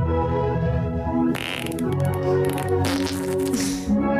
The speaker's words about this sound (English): When people pressed play, they heard some music with fart sounds on top.